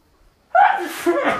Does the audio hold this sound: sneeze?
yes